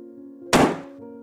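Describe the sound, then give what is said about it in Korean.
A single heavy thud of someone being struck hard on the back of the head, loud and sudden, with a brief dull decay over a faint steady low hum. No voices are present. “누군가 제 뒤통수를 강하게 때렸습니다.”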